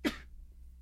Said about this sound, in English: Bless you.